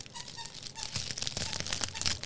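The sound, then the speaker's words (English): A dog plays with a toy, making irregular bursts of crinkling and rustling with faint squeaks, steady throughout with no one talking. “Um, okay, well, I hope everybody doesn't mind all the dog playing with toy of sounds.”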